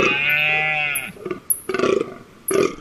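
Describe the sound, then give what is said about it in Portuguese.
Deep, belch-like groans of a rutting fallow deer in October, loud: one drawn-out throaty call followed by a few shorter, rough grunting bursts with brief pauses between. “A de outubro cobre o gamo e a viagem outonal da coruja.”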